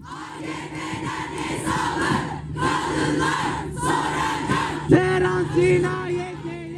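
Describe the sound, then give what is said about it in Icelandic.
A large protest crowd in Istanbul in late November chants in rhythmic bursts, voices rising and falling together in loud repeated phrases, with a sharp shout breaking out near the end. “Í mótmælanum var kallað að morð á hins einn fólki og konum væru politísk morð.”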